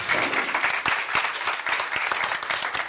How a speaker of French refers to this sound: On peut l'applaudir.